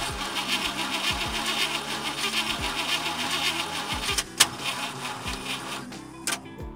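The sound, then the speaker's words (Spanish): A car engine cranks over and over without catching, a steady grinding whir with rhythmic rising surges, broken near the end by a couple of sharp clicks and a brief pause. “Pero, pero, si el coche no enciende, creo que, creo que no tiene gasolina.”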